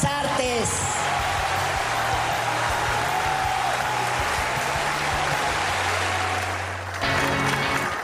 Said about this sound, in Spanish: Infinitos aplausos para la diva mexicana Silvia Pinal.